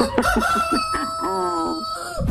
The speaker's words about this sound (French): On va demander au coq de faire un petit peu de bruit.